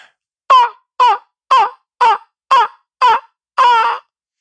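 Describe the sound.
A person imitates a raven, letting out seven loud, hoarse croaking calls in a steady rhythm, the final one drawn out longer, with no talking.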